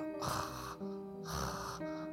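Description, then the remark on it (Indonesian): A voice imitates a ghost's snoring with two drawn-out, raspy snorts in a slow rhythm, each a rough breathy rumble, fairly loud with faint tonal background hum. “Hantunya ngorok.”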